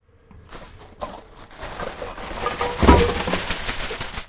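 A bag of packaging waste is tipped into a bin: crinkling, rattling plastic rustles build over several seconds, with a dull thump as the load drops. No one speaks.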